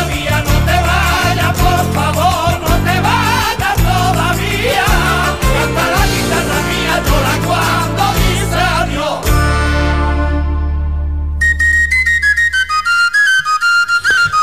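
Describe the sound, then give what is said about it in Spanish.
A sad but pretty sevillana song plays loudly, a wavering melodic line over full, steady accompaniment, then settles into a long held closing chord, with a few high bright tones ringing out at the end. “y es una sevillana que normalmente siempre canta a los borrachos, no sé por qué eso”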